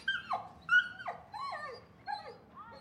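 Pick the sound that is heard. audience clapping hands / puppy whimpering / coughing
puppy whimpering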